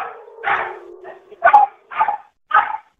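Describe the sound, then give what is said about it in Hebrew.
An anxious female dog barks repeatedly in short, sharp bursts during a Red Color rocket alert, four or five barks with a whiny, agitated edge, preceded by a drawn-out whimpering tone. “כן, כן, זה הכלבה החרדתית.”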